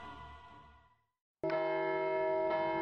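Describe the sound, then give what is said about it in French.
A church bell rings the tocsin as an alarm in the village of Pantin, north-east of Paris, in 1328: a fading resonant toll dies into a brief silence, then loud, bright strikes ring out, one after another, with a sustained metallic hum between them. “Au sein du petit village de Pantin, au nord-est de la capitale, les toxins n'ont jamais sonné aussi fort.”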